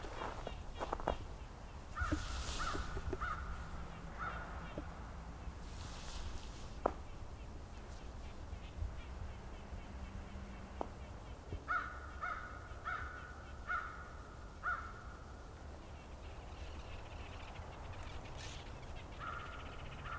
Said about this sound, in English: These crows are way further away and way louder.